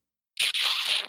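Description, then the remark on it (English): A person makes a disapproving hissing noise through lips and teeth, a brief catch followed by a longer airy drawn-out hiss, fairly loud, with no other talking. “It wasn't he didn't say anything, but it was a noise that he made with his lips and his teeth that sounds something like this.”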